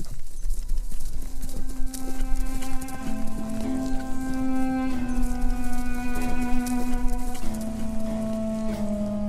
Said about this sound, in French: Et l'officier remonta sur son étalon gris et repartit au galop, soulevant un nuage de poussière.